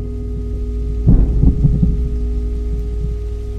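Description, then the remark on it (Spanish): Rain starting to come down, with a low, rumbling roll of thunder swelling briefly in the middle before settling back into a steady, muffled outdoor wash. “Saqué la bolsa de basura justo antes de que empezara a llover.”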